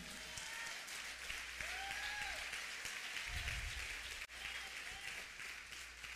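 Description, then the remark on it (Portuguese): A crowd applauds Jesus steadily for about six seconds, a dense, even wash of clapping with a few raised voices calling out over it and a brief dip near the end. “Vamos aplaudir a Jesus aqui.”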